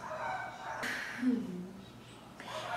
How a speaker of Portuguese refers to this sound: Eu espero que vocês não estejam escutando esses cachorros da vizinha aqui. Eu acho que vocês estão escutando.